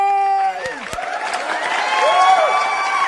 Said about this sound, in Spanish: les pido si me ayudan a darle la bienvenida con un fuerte aplauso a mi querido Arturo Morel